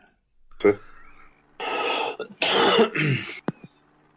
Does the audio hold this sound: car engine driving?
no